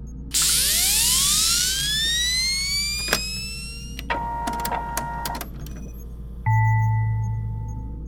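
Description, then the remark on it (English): A loud whine climbs steadily in pitch as a robot drone is reactivated after hardware adjustments, then gives way to clicks and mechanical chirps before settling into a steady electronic hum. “It's time to reactivate Drone 33. Reactivating in 3, 2, 1.”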